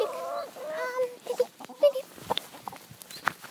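Lilly, a pet chicken with a black, white and brown head, clucks while being held, starting with a few drawn-out, nasal calls and breaking into a run of short, uneven clucks and soft grunts.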